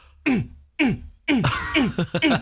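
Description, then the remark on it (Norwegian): A voice mimics an endlessly repeating dance-music drum beat heard all day in an area where a marathon is run, with punchy, pitch-dropping 'boom' sounds, three evenly spaced hits followed by a quicker run of beats, fairly loud. “så er det en sånn evig …-tromme som bare går fordi trans og løping henger sammen”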